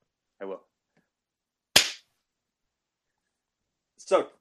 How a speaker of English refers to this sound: Clap again. Okay. Clap again.